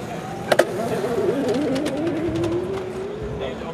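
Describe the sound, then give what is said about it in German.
A go-kart motor whines steadily as the kart drives another lap of a go-kart track, its pitch wavering and then sliding lower as it passes by, with a couple of sharp clicks near the start and a low rumbling background. “Drehst du noch eine Runde, dann höre ich, dann lausche lausch ich mal, wie dein Motor jault.”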